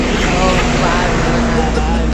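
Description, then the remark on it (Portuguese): A heavy truck rumbles past on the road, its loud, steady engine drone and tire roar filling the whole moment without letup. “Caralho, agora é um caminhão.”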